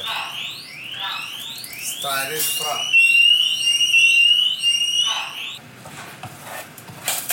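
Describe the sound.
A smoke alarm, set off by burnt butter, blares a rapid series of rising electronic whoops and a piercing steady tone, while voices talk briefly underneath.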